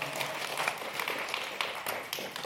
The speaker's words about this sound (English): Let's like applaud yeah. the well working of making that organization.